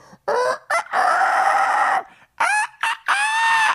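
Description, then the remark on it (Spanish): A person imitates roosters crowing: several loud cock-a-doodle-doo calls, a couple of short ones, a long drawn-out crow, then more rising crows in quick succession. “no lo estoy diciendo yo como un chiste, es algo, están los gallos, ah, ah, ah, otro finito, otro,”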